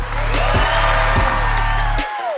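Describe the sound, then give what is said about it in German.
A loud, dense burst of crowd cheering with whoops and raised voices, steady for about two seconds before cutting off abruptly. “Die Männer und Frauen, die ihre Arbeit besonders gut machen, verdienen sehr viel Geld, bekommen Preise und noch mehr Applaus.”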